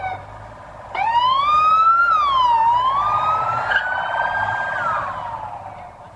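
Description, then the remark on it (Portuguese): A police siren starts up abruptly, its pitch sliding up and down in a wailing sweep, loud before fading slightly as police vehicles carrying four arrested bank robbers pull away from the scene, with a low engine rumble underneath. “Ó, vão ligar a sirene e vão sair daqui.”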